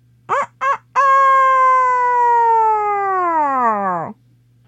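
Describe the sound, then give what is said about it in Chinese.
A rooster crows loudly once. Two short clipped notes lead into a long, sustained, harmonically rich cry that drops in pitch as it trails off. No one speaks. “啼了一声，大家都震动了一下，包括所有的母鸡和小鸡。”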